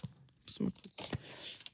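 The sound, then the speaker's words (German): Crisp paper rustling as pages of a thick book are flipped, a few quick rustles followed by a longer soft swish, with faint breathy murmuring underneath. “Umblättern in dem Schinken hier.”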